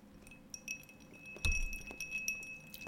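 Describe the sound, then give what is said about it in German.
Ice cubes clink against a glass in several light, bright taps, with one louder knock near the middle, with no voices. “Hört ihr diese Eiswürfel im Glas?”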